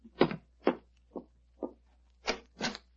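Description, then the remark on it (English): Six dull, thudding footsteps on stairs, roughly half a second apart at a slightly uneven pace, the middle steps softer and the last two heavier. No one speaks. “I hear footsteps on the stairs.”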